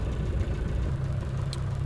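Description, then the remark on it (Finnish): A vintage Maxwell car engine idles steadily, a continuous low rumble with a faint mechanical whir, fairly loud, with no voices over it. “Tämä on sinne Puud Maxwellin kone.”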